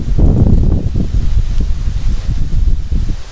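Blustery wind in Rot buffets a microphone in low, rumbling gusts, with a steady roar and rustling bursts that swell and ease over a few seconds; no voices are heard.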